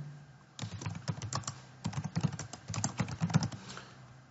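Rapid typing on a computer keyboard as someone types the subject of a message, a steady stream of crisp key clicks in short bursts with a brief pause near the start and another midway, no voices.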